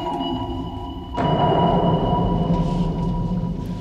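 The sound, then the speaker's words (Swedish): A sonar ping resonates as a deep rumble through a submarine hull, with steady droning tones running underneath. About a second in it swells louder and stays heavy and continuous. No one speaks. “Och är det inte så också att det blir en väldigt fin resonans i ubåtsskrovet när man hör det? Att det liksom bara mullrar så här ungefär så.”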